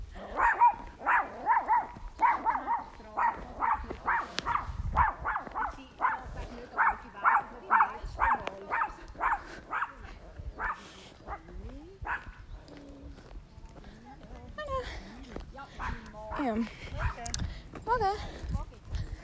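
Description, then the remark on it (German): A dog barks in a rapid, steady run of repeated barks for about ten seconds, then breaks into scattered, irregular yelps and whines, with some voices in the background. “Also meine Mutter und dein Hund ist leider nicht ganz so gut befreundet.”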